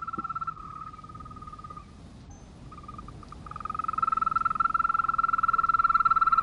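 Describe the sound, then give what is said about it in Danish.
A dense chorus of brown frogs giving their mating call at the edge of a pond, a steady droning purr of rapid pulses that dips briefly, then swells louder and fuller, with no voices. “Og frøernes, de brune frøers elskerslag, den er meget mere lydelig.”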